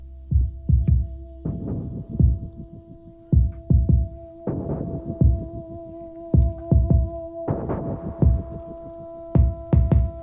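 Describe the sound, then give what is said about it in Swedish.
A DJ mix recorded earlier, performed live on a DJ mixer, plays on its own: heavy, punchy bass kicks in an irregular, chopped rhythm over a steady droning hum, with bursts of bright noisy texture and no talking. “det vill säga jag gör den inte nu, den är inspelad i förväg, men jag gjorde den live på min eh, DJ-mixer-greja.”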